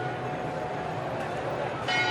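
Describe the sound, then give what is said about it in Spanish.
Church bells ring steadily at noon, their overlapping tones sustained, with the ringing swelling slightly louder near the end. “ay, las campanas. Son las 12 del mediodía. Para oír las campanas.”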